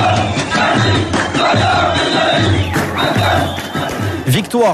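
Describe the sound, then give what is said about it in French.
A large crowd celebrates in the streets of Gaza after a truce ending 10 days of fighting, many voices shouting and cheering together in a loud, continuous roar, with rhythmic chanting swells and occasional higher yells rising above the din. “Oui, et pour le moment, c'est plutôt la joie dans les rues de Gaza.”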